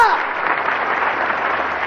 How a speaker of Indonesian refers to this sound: Tepuk tangan bagi Yesus.